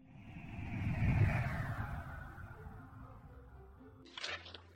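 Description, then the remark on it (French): The engine of a rocket car, a record-speed car with a long pointed nose and a wing like an airplane, spits fire from the rear as it roars past, its loud rumbling whoosh swelling to a peak and then trailing off, with a brief sharp burst near the end. “Et tu sais à quoi elle ressemble Elle a un long nez pointu, un aileron comme un avion et un moteur qui crache du feu par derrière, comme une fusée. D'ailleurs, on l'appelle la voiture fusée.”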